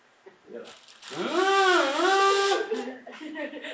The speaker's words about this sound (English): Here is one right back here. This is a membrane not unlike what's inside my kazoo. And watch this. so much louder.